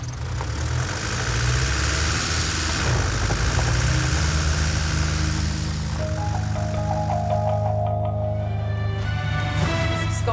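car engine running

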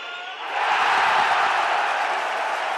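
football stadium crowd cheering

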